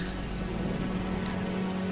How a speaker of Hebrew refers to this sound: בחוץ יורד גשם.